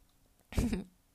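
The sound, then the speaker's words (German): A cat yawns once as it wakes up in the morning, a short breathy exhale with a faint squeaky vocal tone that trails off quickly in otherwise quiet surroundings. “Es war gerade Barney, der gegähnt hat.”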